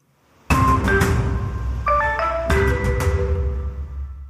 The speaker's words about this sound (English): That's water.